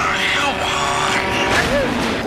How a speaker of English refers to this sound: That's a truck, son. Don't stand in front of them.